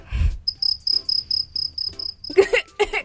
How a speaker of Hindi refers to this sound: cricket sounds. Can you all hear it?